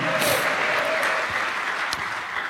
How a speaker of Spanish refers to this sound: Denle un aplauso a Cristo por eso, amado hermano. A su nombre sea la gloria.